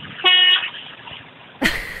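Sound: truck horn honking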